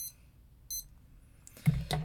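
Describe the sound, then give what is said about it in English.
An alarm clock beeps in two short high-pitched bursts, evenly spaced, over a quiet background, followed by some muffled rustling or handling noise. “Oh, my bad. It's an alarm.”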